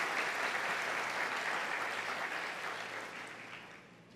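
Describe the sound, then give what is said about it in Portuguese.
Sustained applause from an audience applauding two people who had just been thanked, a dense wash of many hands clapping at once, fairly loud and steady before gradually tapering off toward the end. “Vocês podem aplaudi-los.”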